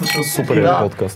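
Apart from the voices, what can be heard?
wine glasses clinking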